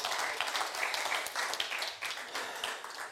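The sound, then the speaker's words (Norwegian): An audience breaks into steady, sustained applause, dense overlapping claps forming a bright, even wash of sound that holds at a fairly loud level throughout, with no voices standing out. “Ja, gi dem en applaus.”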